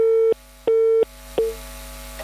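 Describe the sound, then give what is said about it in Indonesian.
A telephone busy tone after a phone call with a news reporter disconnects: steady electronic beeps repeating in an even on-off rhythm, about three pulses, loud with no voices, the last one cutting off short. “Ya terputus sambungan telepon kami dengan reporter kami”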